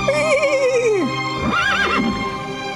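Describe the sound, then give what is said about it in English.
A horse whinnies loudly, a long wavering neigh that rises and falls, followed by a second shorter, shakier whinny, with faint hoof clatter in the background. “Horse says, Don't cut my head off.”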